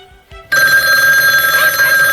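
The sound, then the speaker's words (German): A telephone bell rings loudly and continuously in the headquarters of the Three Investigators in the afternoon, a bright metallic jangle starting abruptly after a brief quiet moment and sustaining to the end without any talking. “Am nächsten Nachmittag klingelte in der Zentrale der drei Detektive das Telefon.”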